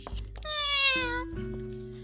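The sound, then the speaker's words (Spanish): A single drawn-out cat meow, loud, sliding gently downward in pitch, over a low, steady musical background. “Los instrumentos tocaban con gran animación, mientras los ratones escuchaban la música nadie se dio cuenta de que un gato había entrado al teatro.”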